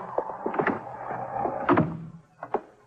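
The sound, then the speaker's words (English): A door is pulled shut with a solid thunk midway, surrounded by scattered clicks and rattles of handling, then two quick knocks of the latch. Moderately loud, with no talking. “Get in and close the door.”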